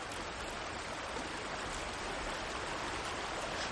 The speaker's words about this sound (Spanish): Escucha. El río hace ruidos.